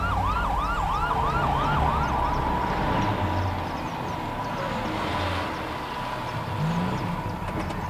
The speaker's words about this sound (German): Was ist los? Der Krankenwagen kommt. Endlich.